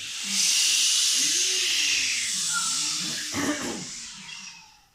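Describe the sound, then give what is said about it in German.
A loud, airy rush of wind swells in quickly, holds as a broad hissing whoosh for several seconds, then fades away near the end, with faint low tonal sweeps beneath it. “Und er brauste nochmal kräftig und sauste davon.”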